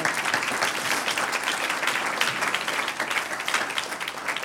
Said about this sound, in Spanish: Un aplauso, dele un aplauso al Señor.